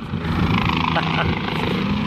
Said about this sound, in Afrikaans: Ek is seker een van die bestuurders kan net sy hand by die venster uitsteek en dan die helikopter vasgryp.